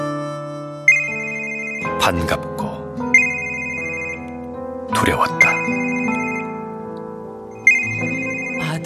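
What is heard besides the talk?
phone ringtone ringing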